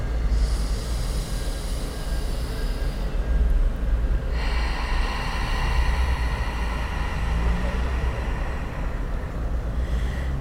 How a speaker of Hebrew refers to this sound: ניקח נשימה גדולה, שים לב שהאוויר יותר קר בנשימה פנימה, יותר חם בנשיפה החוצה.